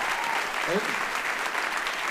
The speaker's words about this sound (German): ein riesen Applaus